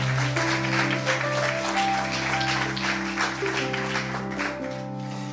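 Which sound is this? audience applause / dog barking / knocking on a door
audience applause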